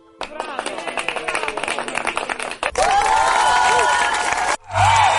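An applause and cheering sound effect: a burst of clapping and cheering from a crowd, dense rapid clapping at first, then louder whoops and shouts swelling over the clapping, briefly cutting out before resuming.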